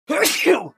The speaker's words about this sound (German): Gesundheit